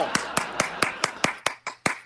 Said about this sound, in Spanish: Eh, una quiero aplaudirle. Bravo, maestro, bravo.